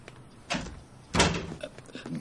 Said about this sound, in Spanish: Hank cierra la puerta y la sigue.